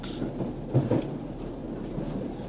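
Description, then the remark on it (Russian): A steady low rumble of a speeding train heading to a home town, with rattling clatter and a couple of heavier jolts near the start, continuous throughout at moderate loudness with no voices. “Через сорок лет я трясся в поезде, мчавшемся в родной город.”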